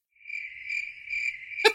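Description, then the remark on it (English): Crickets chirp in a steady, high-pitched trill that pulses gently for over a second, then cuts off with a brief sharp burst; no one speaks. “I'm gonna just let crickets go there.”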